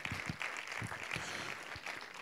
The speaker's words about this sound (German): Gebt ihm ruhig nochmal einen Applaus.